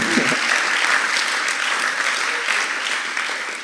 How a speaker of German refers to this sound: Ja, also das ist schon Applaus wert, oder?